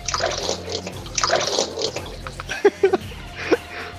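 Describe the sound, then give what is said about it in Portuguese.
Water runs from a tap in a steady, splashing hiss, with a few short vocal sounds breaking in toward the end. “Só a torneira ali, não tá.”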